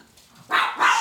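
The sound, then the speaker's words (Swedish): A dog barks twice in quick succession, two sharp, fairly loud barks after a brief quiet moment, with no voices around them. “Vi har träffat hundarna.”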